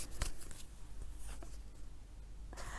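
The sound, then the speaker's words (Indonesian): A tarot card being drawn during a reading, the second card, for love, which turns out to be The Magician: a few soft, papery swishes and flicks in brief bursts, fairly quiet, with no one speaking. “Kartu yang kedua dibukakan adalah percintaan.”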